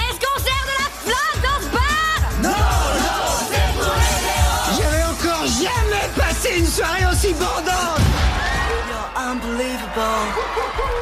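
A large crowd cheers loudly and continuously, with overlapping whoops, yells and bits of laughter filling the whole stretch at a steady, energetic level, applauding Jersey, a music-loving coyote.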